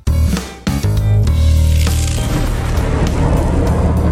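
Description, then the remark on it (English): A loud thunderclap sound effect marking a news lightning round: a sharp splitting crack followed by a second burst, then a heavy rolling rumble that slowly fades over a few seconds, with no voices. “If you're hearing Zeus, it's just the last bit of news. This is the lightning round for the quick hits after the big news bits.”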